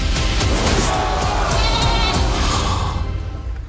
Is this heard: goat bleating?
yes